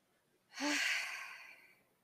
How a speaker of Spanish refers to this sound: Vamos a tomar una respiración profunda.